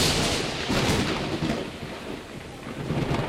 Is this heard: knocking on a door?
no